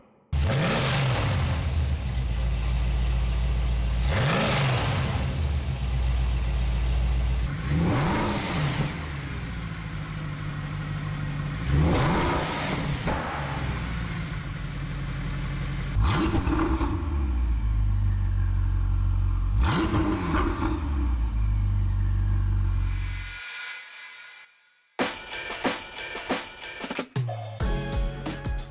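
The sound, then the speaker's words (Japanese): A twin-turbo 3.9-liter V8 engine revs hard in about six loud, rising bursts roughly every four seconds over a steady rumble, then cuts off, leaving brief rougher mechanical noise at the end, with no talking. “ツインターボを搭載した3.9リッター V 型8気筒エンジンの羽馬サウンドでした”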